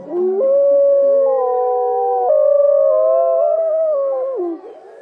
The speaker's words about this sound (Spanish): Corre hacia la colina, echa el cuello hacia atrás y aúlla.